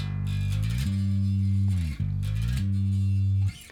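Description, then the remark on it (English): A distorted electric guitar plays a short phrase of sustained notes, moving from the D at the tenth fret of the E string, played with the middle finger, to the G on the string above and back again, loud with no talking. “by the time I'm at the the the um, the D on the on the E string here, the fifth, excuse me, the tenth fret, then I'm usually on my middle finger and I transition to the G on the string above. So it sounds like this.”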